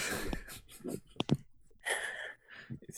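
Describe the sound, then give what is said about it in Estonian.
A table scrapes and slides across the floor in several rough, noisy bursts, with a sharp knock partway through and brief quiet pauses between the movements. “seda oli kuulda jah, laua libisemist”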